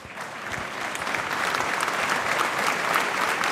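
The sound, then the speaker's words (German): Dense, sustained applause from a large crowd giving a standing ovation in a full hall, a steady wash of many hands clapping at once that swells slightly and holds at full strength throughout, with no voices standing out. “Quea è fat impression al public, ja dau alla fin in standing ovation, ad in liung applaus.”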